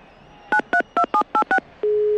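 Six quick telephone keypad tones beep in a steady rhythm as a call is dialed to the Snac Barça bar, each a short dual-pitched blip, followed by a continuous steady tone starting at the end. Clear, with no talking.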